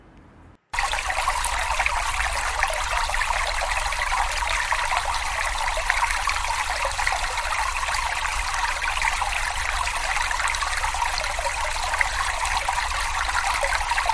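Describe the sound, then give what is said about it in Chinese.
Water splashes and sloshes continuously as someone wades through a river, a steady, dense rushing texture that starts abruptly after a brief pause and holds at an even level, with no voices. “等定伯过河的时候，水哗啦啦的响。”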